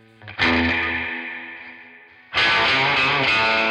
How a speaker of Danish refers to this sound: Det var sindssygt højt. Det, jeg tænkte, at der var et eller andet galt, måske, men det, det var der ikke. Det, det var bare højt. Det var virkelig højt. Og han havde den her røde øh, Gibson-guitar, og så havde han en pedal, som var rød også